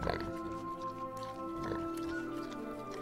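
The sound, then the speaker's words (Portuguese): A pig grunts and oinks several times in short, irregular snorts over a steady musical drone, moderately loud, in its pigsty. “Adeus, senhor porco. Hoje eu entendo que meu grito arrogante de independência me trouxe até seu chiqueiro.”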